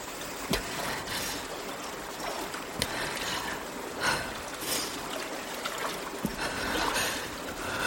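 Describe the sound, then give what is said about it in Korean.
Water sloshes and swirls steadily as a woman wades across the Tumen River at night, the water rising from ankles to knees to chest, with soft splashes breaking the surface every second or so over a continuous rippling wash. There is no talking. “너무 이르지도 너무 늦지도 않은 밤에 발목에서 무릎, 무릎에서 가슴까지 출렁이는 강을 건너며 깊이를 가늠했다.”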